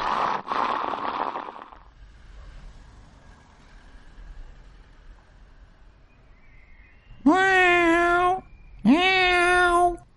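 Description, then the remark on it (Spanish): A cat meows twice near the end, two loud, drawn-out cries in close succession, following a brief burst of rushing noise at the start and a stretch of quiet room tone. “Cuando llegan las visitas, los cronopios andan dando vueltas y algún que otro gato también.”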